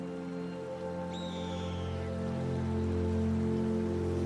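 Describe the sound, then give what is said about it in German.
A clear river winds through mountains and dense conifer forests in a steady, continuous rush of water, even throughout, with a brief high bird call early on and a low sustained hum underneath. “Ein glasklarer Fluss rundet das Bild ab. Er bahnt sich wie eine Wasserader seinen Weg durch die Berge und Wälder.”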